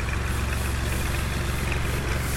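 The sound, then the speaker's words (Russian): A Belarus tractor engine rumbles loudly as the tractor drives past, a steady low, throbbing drone with a faint knocking pulse and broad mechanical noise that holds constant throughout, with no one talking. “А, дамы и господа, мимо нас проезжает трактор.”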